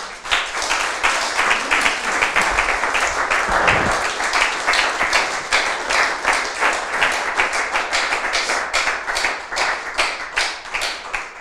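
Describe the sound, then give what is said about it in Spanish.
Sustained applause for God from a crowd at a church service, loud and dense at first, then settling into a steadier, rhythmic clapping that continues to the end. No one speaks over it. “Dar un aplauso a nuestro Dios.”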